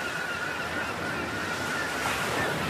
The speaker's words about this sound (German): Während du deinen Weg entlang des Meeres weiter fortsetzt, hörst du die Rufe der Möwen.